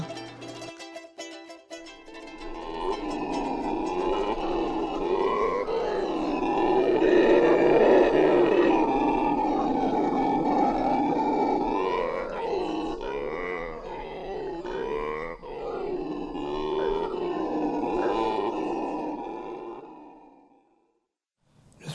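Howler monkeys howl in a loud, sustained chorus of deep, rumbling roars that swell and pulse for about twenty seconds, overlapping without pause before cutting off abruptly.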